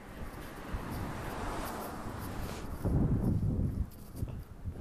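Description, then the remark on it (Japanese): A car passes by outdoors, its low rumble and road noise swelling midway through before easing off, with steady wind-like background hiss and no talking. “ちょっと車が来るので音を下げた方がいいですね”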